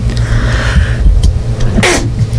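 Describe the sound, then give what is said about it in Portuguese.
A single sharp, loud sneeze bursts out near the end, put down to heat and air conditioning, over a steady low rumble that runs through the whole recording. “saúde, todo mundo, saúde. todo mundo ouviu.”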